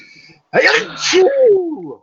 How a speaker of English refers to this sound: Bless you. Oh. Hmm. Boy, that was a big sneeze.